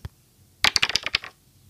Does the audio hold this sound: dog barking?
no